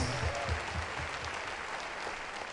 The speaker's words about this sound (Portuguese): Let's give Jesus a hand of praise. Vamos também dar a Jesus uma salva de palmas.